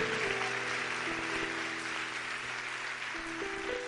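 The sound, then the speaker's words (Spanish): Steady audience applause fills the whole few seconds, a dense wash of clapping at even loudness, with sustained musical tones running underneath. “Vamos, fuerte el aplauso.”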